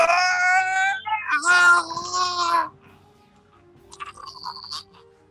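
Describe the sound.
A person imitates a loud, drawn-out scream of pain, a strained, high-pitched wail lasting a couple of seconds, then it breaks off into quiet, faint rustling.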